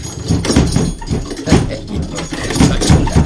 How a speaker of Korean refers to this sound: 지금 뭐 노크하는 거야? 그냥 들어와.